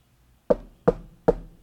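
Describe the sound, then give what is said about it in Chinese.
Three sharp, evenly spaced knocks on a house's front door late on a cold night, each a hard thud with a quick decay, about 0.4 seconds apart. No one speaks. “门外又响起刺耳的敲门声”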